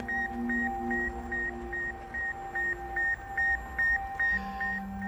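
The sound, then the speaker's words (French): A steady series of short, evenly spaced electronic beeps from the radio beacon of the Sputnik satellite, launched in 1957, about thirteen in five seconds, sounding over a hiss of static and faint sustained tones. “Pendant qu'en URSS on célèbre, des scientifiques américains du MIT, eux, traque le déplacement du petit satellite en écoutant sa balise radio, qui émet une série de bips.”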